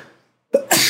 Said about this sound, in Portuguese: Saúde, viu?